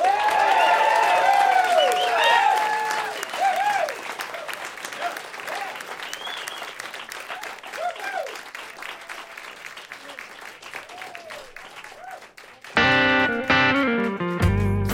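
A live audience at WFPK Radio Louisville's Live Lunch claps steadily after a live performance, with whoops and whistles that fade as the ovation winds down, then music abruptly starts up near the end.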